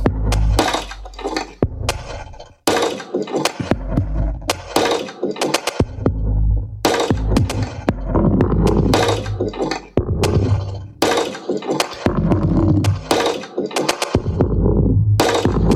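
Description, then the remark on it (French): Sharp knocks and clacks made with pieces of wood strike in irregular bursts, their tails growing longer and more washed out as more and more convolution reverb is applied around them as a sound-design effect. “assez impressionnant parce qu'il ajoute euh, de plus en plus de reverb à convolution et donc euh, c'est ça permet de voir à peu près jusqu'où on peut aller en termes de en termes de d'effets de sound design.”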